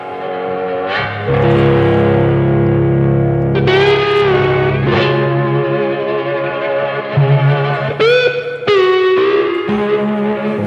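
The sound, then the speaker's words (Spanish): Gritty, distorted cigar box guitar played with sliding notes and strummed chords over a steady low drone. The tone is loud, bluesy and raw, with some reverb and no voices. “Y ellos, como son así de especiales, estaban debatiendo si esto era tres cuerdas, cuatro cuerdas, eh, y, seguramente hayan adivinado incluso qué es lo que está sonando.”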